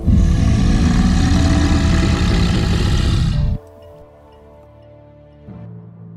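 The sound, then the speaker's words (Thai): A tiger roars: a loud, deep, rumbling roar sustained for about three and a half seconds before cutting off abruptly, leaving a low steady hum. “ยังไม่ทันจะขาดคำ มองขึ้นไปบนเนินเขา ก็เห็นเสือโคร่งตัวหนึ่งสะบัดหางเพนกระโดดกระโจนเข้ามาต่อหน้าคนทั้งสาม”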